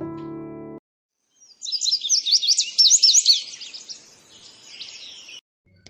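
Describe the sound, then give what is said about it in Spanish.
A tanager chick chirps to its mother in rapid, high-pitched bursts, a busy twittering run that rises in intensity, then trails off into softer peeps; a brief low musical tone sounds first. “Era un pichoncito de azulejo que le decía a su mamá, Mira mamá, una estrella se ha posado en la rama, arriba de nuestro nido.”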